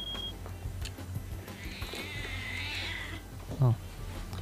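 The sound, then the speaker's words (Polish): A cat in a film lets out one long, high, wavering meow lasting over a second, over a low steady hum, followed by a short spoken exclamation. “inny kot.”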